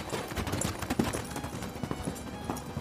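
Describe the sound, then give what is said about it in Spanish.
The hooves of a horse being ridden clip-clop in a steady, repeated rhythm of sharp knocks, fairly loud and continuous throughout, with no voices over them. “Una tarde, el jinete don Silvio de Carranza y Góngora cabalgaba hacia su finca”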